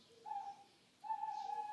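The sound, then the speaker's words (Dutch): A tawny owl in a city centre, seemingly calling from a bank building and heard for several days, calls twice in a mournful tone, each hoot long and steady, the second one drawn out longer. It sounds soft, with no voices present. “Misschien roept hij een andere uil.”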